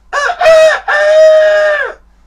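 A rooster crows loudly, one full cock-a-doodle-doo in three bursts, the last note long and drawn out before it cuts off.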